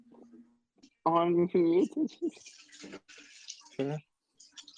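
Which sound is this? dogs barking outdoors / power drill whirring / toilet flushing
toilet flushing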